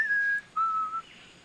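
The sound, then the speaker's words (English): Two thin, steady whistled notes as the Star Trek character Data tries to whistle, the first slightly higher and the second a bit lower, each held for about half a second with a short gap between, clear with no talking. “Look, Data is trying to whistle.”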